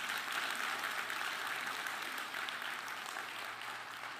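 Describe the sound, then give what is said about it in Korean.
A church audience claps steadily during a sermon for about four seconds, a dense, crackling wash of many hands with no voices over it, fading slightly toward the end. “뭐 어디 계신지는 잘 모르겠지만 박수 한번 해주시면 좋을 것 같습니다.”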